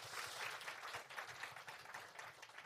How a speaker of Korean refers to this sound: 박수 한 번 더 부탁드리겠습니다.